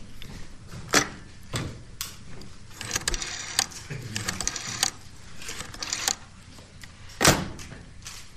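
A rotary telephone dial on a Siemens Fernmeldeapparat 611-2 telephone is turned several times, each pull followed by a whirring, ratcheting return and sharp mechanical clicks, with no talking.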